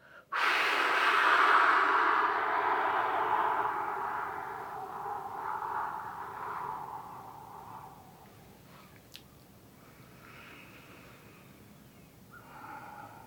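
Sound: deep breath in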